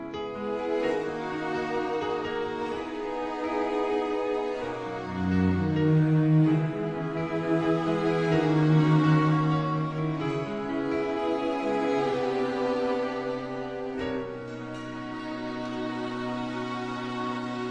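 A Mandarin pop song from an album that won Best Album at Taiwan's 6th Golden Melody Awards, a female singer holding long, sustained notes over a full, steady band arrangement, loud and continuous throughout, with a brief dip in intensity near the end.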